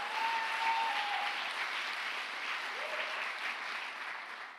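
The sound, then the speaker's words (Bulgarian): An audience claps steadily, a dense, continuous patter of many hands at fairly even loudness throughout, with a faint voice or whoop briefly rising over it and no speech. “О, камон, ако ръкопляскаш, ръкопляскай, като че наистина вярваш.”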